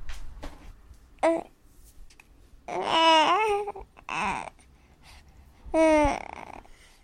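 A baby babbles in several short bursts of cooing, wavering vocal sounds, separated by brief quiet pauses, with no adult speech.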